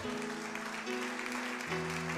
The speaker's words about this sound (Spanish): Dale la gloria al Señor con un fuerte aplauso al Señor.